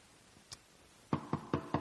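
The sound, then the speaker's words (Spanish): Four firm knocks on a wooden door in a quick, even rhythm, preceded by a single faint tap; no voices. “Así que ese hombre se levanta, se levanta de allí, va a casa del amigo y toca la puerta.”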